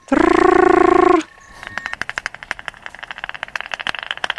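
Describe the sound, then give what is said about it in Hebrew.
Bat echolocation through a bat detector: a short buzzy tone, then a run of sharp clicks that quickens and packs tighter as the bat flies toward an insect to catch it. Loud, no voices. “כשהוא התעופף לקראת החרק, זה נשמע...”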